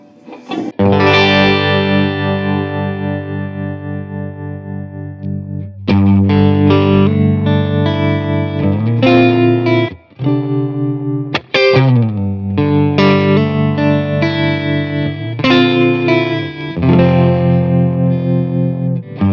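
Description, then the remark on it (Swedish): An electric guitar plays loud, sustained chords through a tremolo effect, the volume pulsing quickly and evenly as the chords ring and change. No voices, just the slightly gritty guitar. “Men vi kan sätta på lite tremolo och höra också.”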